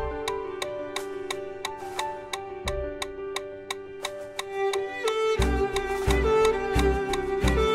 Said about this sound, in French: concentrez-vous bien sur le rythme, un pas à chaque battement du métronome.